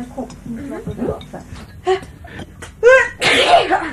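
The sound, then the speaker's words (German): A sharp sneeze bursts out near the end, preceded by a quick intake of breath, with people chatting underneath throughout. “Gesundheit.”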